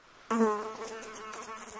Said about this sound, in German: Jetzt hast du schon den zweiten wichtigen Punkt erwähnt, der die Fliege zum großen Störenfried macht. Das eine war die Akustik, das andere ist das Flugverhalten.